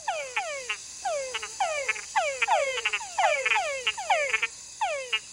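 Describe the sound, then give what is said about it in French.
Túngara frogs giving mating calls in a chorus: repeated descending whine-like calls, many followed by quick clustered chucks, overlapping at a brisk rhythm against a steady high-pitched insect hum. No voices. “Et les dames Tungara, quand elles ont le choix, préfèrent des appels complexes avec des chocs graves et mis à un rythme rapide.”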